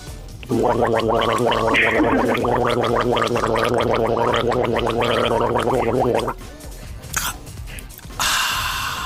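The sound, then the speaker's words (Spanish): A long, loud gargle bubbles steadily for about six seconds with a low, throaty rattle, then breaks off into a short spitting splash and a few softer wet sounds. “¿Se escupimos? Ok, ya quedó.”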